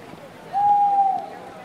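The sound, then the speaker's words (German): A single clear, drawn-out hoot from a little owl in Athens, near the Academy of Athens, a steady whistled note lasting over half a second, against a faint background murmur. “Wie gerufen lässt sich ein Athener Stadtkreuzchen vernehmen.”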